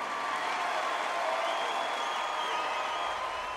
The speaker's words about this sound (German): Als der Applaus schließlich abebbt, startet Pichai mit einem Witz über Emojis.